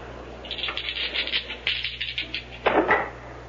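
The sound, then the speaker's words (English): Dice rattle and clatter across a table in a quick, irregular run of small clicks, finishing with a couple of louder knocks before settling. No one speaks. “The dice are yours.”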